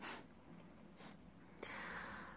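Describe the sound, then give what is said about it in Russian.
A breathy yawn while recalling a folk charm against the evil eye: a drawn-out airy inhale followed by a rougher, gasping exhale, with no talking. “Даже вспоминая этот заговор, зеваешь.”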